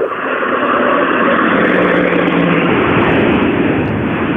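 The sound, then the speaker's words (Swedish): An Ascona A car from Hörby in Skåne revs its engine loudly and continuously, a dense, throaty drone holding steady for about four seconds with no voices over it. “Oh, du hör skånan vad han trattar ur!”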